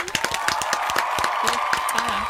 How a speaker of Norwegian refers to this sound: Dere skal få en applaus! Yes!